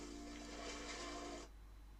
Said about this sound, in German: Ich kann auch schwimmen. Ich schwimme durch das Wasser. Sieht man das? ich kann nicht gut schwimmen.